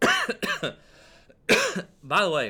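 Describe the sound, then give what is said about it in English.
Several harsh, sputtering coughs from someone choking on saliva come in a quick burst, then one more strong cough after a brief pause, before a voice starts talking. “I just choked on my own saliva there, but I don't know if you've noticed, but the cough is gone.”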